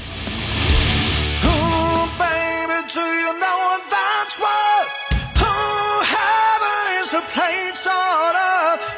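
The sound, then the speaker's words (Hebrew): A power metal cover song plays loud and full, with a male singer's soaring sung melody holding long, wavering notes over dense, driving guitars and drums, no talking over it. “בביצוע פאור מטאל מלכותי וכיפי כזה”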